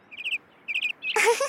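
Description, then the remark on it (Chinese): A small bird chirps in two quick bursts of three or four high, bright notes, followed by a louder, rougher burst of noisy sound at the end. “嗨，小鸟儿！”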